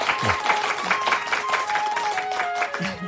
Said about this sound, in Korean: 우리 이분께 좀 큰 박수 한번 보내주시면 좋겠습니다.